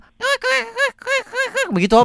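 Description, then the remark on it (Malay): A voice imitates a penguin's call: a quick series of about six loud, nasal, honking bursts, with a bit of laughter and speech around them. “kenapa bunyi penguin macam”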